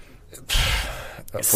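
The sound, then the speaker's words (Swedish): A voice mimics snoring with two breathy, rasping snore sounds, a long drawn-out one followed by a shorter one, fairly loud. “snark, dubbelsnark.”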